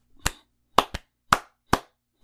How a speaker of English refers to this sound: He's like, I don't think these people understand me. I'm going to talk in their language, and then he proceeds to clap like